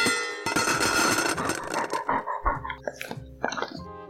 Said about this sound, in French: Je commence à saliver, comme un toutou qui entend les croquettes tomber dans sa gamelle.